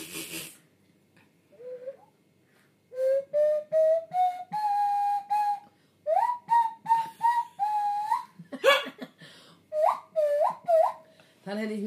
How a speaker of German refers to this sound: Habt ihr schon mal eine Nasenflöte gehört? Könnt ihr mal anhören. Wollen wir mal, mal die Nasenflöte? Nasenflöte. Spiel mal alle meine Indian auf der Nasenflöte.